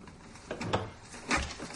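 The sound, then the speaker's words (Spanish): A door is pushed shut, a soft scraping movement followed by a muffled knock as it meets the frame, with no voices present. “Ella cierra.”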